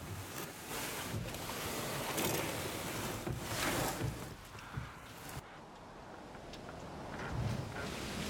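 A ferry boat moves through the water with a steady rush of churning water and wind buffeting the microphone. The wash swells and eases slightly, and nobody speaks.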